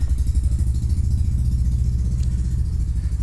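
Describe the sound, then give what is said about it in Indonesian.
A motorcycle, pushed from down the road, is started in front of a boarding house and runs steadily, a low, rapid, chugging throb that holds at an even loudness throughout, with no voices. “orang mau kejalan motor dari sini yang ya, anehnya dari jauh di didorong tapi masih depan kosan dinyalain”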